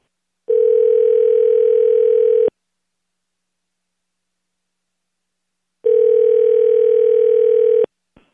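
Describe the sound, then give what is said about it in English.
Telephone ringing on the line during a call to a farmhouse: two long, steady buzzing ring tones about two seconds each, separated by a four-second silence, fairly loud with no one speaking. “Let's call the farmhouse one more time.”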